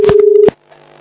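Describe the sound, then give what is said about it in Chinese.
A steady electronic telephone tone holds for about half a second, broken by a few clicks and bursts as the line is hung up, then fades into a faint hum. “嗯，等等啊，电电话要挂掉。”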